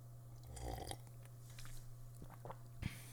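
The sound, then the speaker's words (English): A quiet slurping sip of coffee followed by a soft swallow and faint mouth sounds, ending with a light knock, like a mug being set down, over a steady low hum. Nobody speaks. “Um, but first, I have to take a sip of my coffee.”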